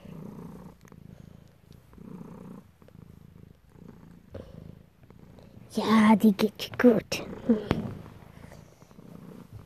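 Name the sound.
cat purring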